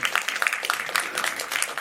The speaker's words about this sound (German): Ihr dürft auch klatschen.